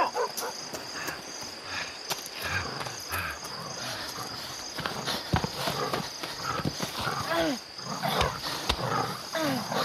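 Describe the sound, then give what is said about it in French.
A dog growls in low, rumbling bursts, a few snarls rising over a steady chorus of chirping crickets and faint rustling, as if outdoors at night. “Allez, pousse-toi, le chien”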